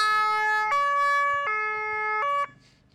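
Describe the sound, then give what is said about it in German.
A loud two-tone siren from an emergency vehicle's special signal system (Sondersignalanlage) alternates between high and low pitches about four times, then cuts off abruptly near the end, leaving faint background noise. “Ja, die Sondersignalanlage.”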